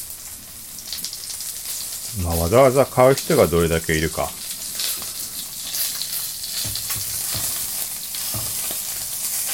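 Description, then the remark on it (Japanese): Pork belly sizzles steadily in a frying pan, a continuous crackling hiss running the whole time, with a short burst of someone talking over it partway through. “例えば今のこの肉が焼ける音、これだけ録音してみたいなことも販売できたりするんだろうし”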